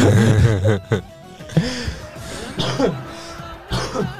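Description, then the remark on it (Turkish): A few sharp coughs and throat-clearing sounds from a man who is still ill, breaking up his voice as he keeps talking between them. “Gördüğünüz üzere hala öksürüyorum.”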